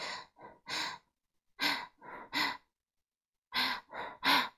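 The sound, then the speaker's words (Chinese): Three sets of quick, breathy inhales, three sharp sniffing gasps in each, separated by short silences; loud and airy, performed by a voice with no talking. “那是一种吸气的声音。”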